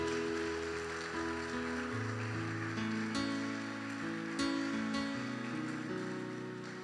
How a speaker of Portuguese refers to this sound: Quem concorda comigo, diga amém e dê uma forte salva de palmas ao Senhor. Mais forte!